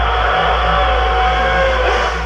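A dense, loud roar of Formula 1 racing cars accelerating together off the start as the start lights go, a continuous wall of high-pitched engine noise with no voices.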